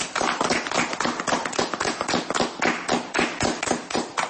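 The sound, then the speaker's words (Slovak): Rapid, dense hand claps and finger snaps, done for listeners to show the snapping and clapping used in their dance, crackle for several seconds, a busy flurry of sharp percussive hits with no clear steady beat. “Tak zalúskajte pre poslucháčov. A zatlieskajte pre poslucháčov.”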